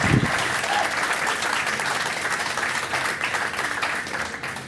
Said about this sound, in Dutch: Dus ik ben heel trots, heel trots toch. Mag een groot applaus